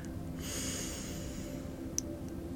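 A slow, soft breath drawn in through the nose, a hissy airflow lasting about a second before fading, heard alone with a faint click afterward.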